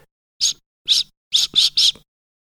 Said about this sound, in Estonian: ja ta tõstis vile uuesti suule ning puhus.